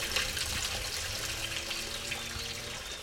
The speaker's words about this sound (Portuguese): Olha o rio aqui aparecendo. Oh, faz tempo que eu não te vejo, hein, meu irmão? Aqui passa o rio? É, lá que é. só é água branca, né? Tá canalizado.